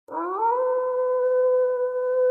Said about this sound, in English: Oh, the distant howl of a wolf signals that it's time for a segment that I like to call Cryptic Confessions oh. Tales from the Dressing Tomb.